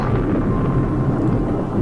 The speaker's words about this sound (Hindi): एक दिन बारिश आ गई और ओले गिरने लगे